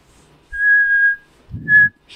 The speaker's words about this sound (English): Man, my thing doesn't like whistles. Trying to find the right frequency. damn it, it doesn't like it.